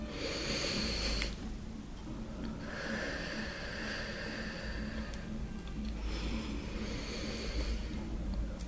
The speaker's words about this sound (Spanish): Aquí se combina siempre estos ejercicios con la respiración. Inhalamos por la nariz y exhalamos por la boca lento. Empezamos.